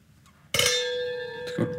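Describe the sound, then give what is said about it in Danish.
Glasses clink together in a toast, a bright strike that rings on with a sustained shimmering tone, followed by a second softer clink near the end. “Skål.”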